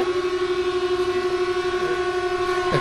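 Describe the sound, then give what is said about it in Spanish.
Horns blare thunderously at a protest in one continuous, steady droning tone that fills the whole stretch, shifting briefly near the end, with no voices heard over them. “están sonando atronadoramente las bocinas, como seguramente nuestros oyentes y vosotros estáis escuchando.”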